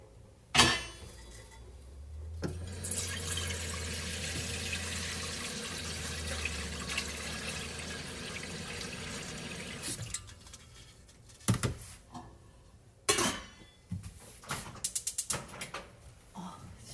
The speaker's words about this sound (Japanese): 夕食の準備に取り掛かった音ですこの日はスパゲティとスープを作ったんですが、えー、お鍋を火にかけようとしたところガスの元栓が閉まっていてつい声が出てしまいました